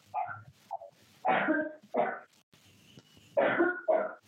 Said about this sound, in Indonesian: ada batuk